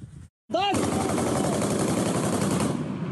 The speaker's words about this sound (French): Dans les rues de Kharkiv, on peut entendre depuis ce matin des échanges de tirs entre soldats ukrainiens ici et troupes russes qui sont encore au loin.